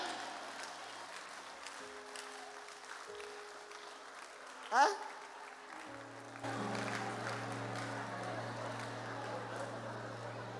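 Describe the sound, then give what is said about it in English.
A crowd claps steadily for several seconds, a dense patter of many hands, with a short sharp burst near the middle and a brief spoken interjection over the applause. “Ah, clap for them.”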